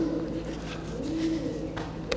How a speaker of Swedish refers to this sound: Och så får vi sällskap av lite duvor när vi har kommit in en bit.